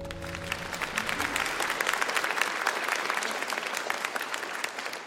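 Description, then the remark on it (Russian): A crowd claps steadily and densely for several seconds, a sustained wash of many hands applauding with no talking over it, beginning with a faint low hum that fades out. “Я знаю, тебе нравятся аплодисменты.”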